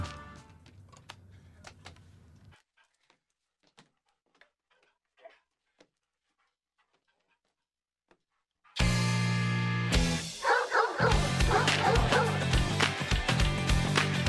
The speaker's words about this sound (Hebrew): והשיר מתחיל בקולות של אה, משחק עם כלב ונביחת כלבים, זו עוד איזו תאונה משמחת ולא מתוכננת ממש, היה כלב באולפן,